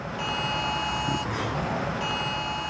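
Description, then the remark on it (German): A mobile phone's harsh emergency evacuation alert blares in a steady, buzzing electronic tone, briefly dipping midway before resuming, loud over a constant rush of wind, in Saronida outside Athens, Greece, during wildfires. “Mitten im Gespräch erklingt über Handy ein Alarm.”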